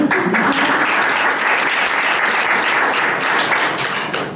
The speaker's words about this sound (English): So big round of applause for you.